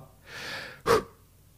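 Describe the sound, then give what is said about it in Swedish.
A person imitates a sharp gasp for breath: a short breathy rush followed by one sudden, loud intake of air, with no talking around it. “eh, jag vet inte om du tänkte på det, man hör ett litet i pratan och det är alltså jag som inte andas.”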